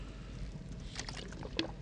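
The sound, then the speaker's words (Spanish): A little water sloshes and trickles as a speaker takes a drink, a few brief liquid splashes over a low background hum, with one sharper drip or gulp near the end and no one speaking. “Un poquito de agua para que no me pase como el presidente.”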